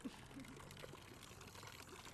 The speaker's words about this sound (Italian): Cammino in piazza Duca d'Aosta e riesco a sentire il suono dell'acqua di una fontana a cui non avevo mai fatto caso. Si cammina verso la fontana. Silenzio, rumore dell'acqua.